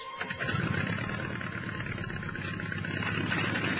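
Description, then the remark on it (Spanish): Old World War I propeller aircraft engines of a group of 14 planes sputter to life and settle into a loud, steady, throbbing rumble, continuous, with no voices. “todos han preparado cuidadosamente sus aviones, sin saber todavía que era la última misión para su líder, arrancan los motores”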